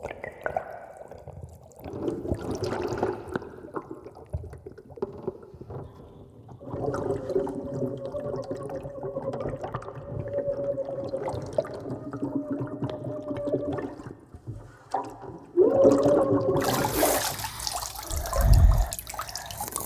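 Water flows steadily, with a rushing, gurgling wash and faint tonal hums beneath it, then swells into a louder, splashier surge with a deep thump near the end. No one speaks.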